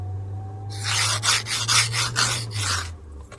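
Ice is scraped off a car window in a quick run of about eight rasping strokes, loud and gritty, over a steady low hum, with no one speaking.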